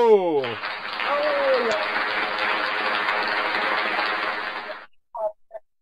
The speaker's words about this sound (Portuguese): As palmas, é um aplauso. Tem aplauso, tudo, tem tudo aqui.